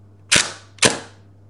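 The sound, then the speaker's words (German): The shutter of a reassembled camera fires twice, about half a second apart: two crisp mechanical snaps with short decaying tails over a faint low hum, with no voices. “wieder zusammengebaut und hat ein paar Mal ausgelöst, jede Zeit ausgelöst. Und der nimmt einfach nur den Ton auf.”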